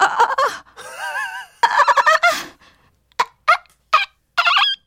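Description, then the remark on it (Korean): A voice imitates the screams of pain heard in a hemorrhoid ward restroom, showing how each person screams differently: loud, wavering wails at first, then a string of short, sharp cries separated by brief silences. “그런데 사람마다 비명 소리가 다르지 말입니다.”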